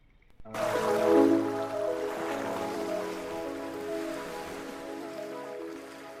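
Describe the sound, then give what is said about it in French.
Waves lap and wash steadily on a beach at the Anse de Pampin, a small commune near La Rochelle, Charente-Maritime, France, facing the Île de Ré bridge, after a brief silence; a continuous rushing sound with a faint steady hum beneath it and no voices. “Hmm, on est face au pont de l'île de Ré, face à l'île de Ré sur la plage de Galais.”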